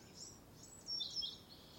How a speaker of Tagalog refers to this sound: Kumain tapos sumandal muna ako sa puno Nanahimik lang din muna ako para namnamin ang preskong hangin at huni ng mga ibon.